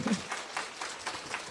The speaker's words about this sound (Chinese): 掌声